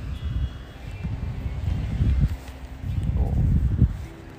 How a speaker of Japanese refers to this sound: ああ綺麗ですね海がすごい綺麗です波の音聞こえてますか